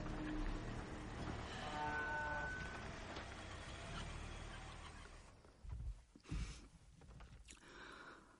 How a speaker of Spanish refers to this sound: Llegan al lago. Detienen el coche en una pequeña playa junto a una casita.